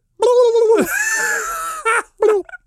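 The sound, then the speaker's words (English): A person vocally imitates a wild turkey gobble, a warbling, trilling call lasting over a second, followed by two short clipped vocal bursts, loud. “So do that turkey sound again.”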